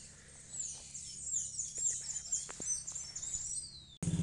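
Birds chirp and twitter continuously in a busy, overlapping chorus of high, quick calls by a cemetery, with a low background hum and no talking.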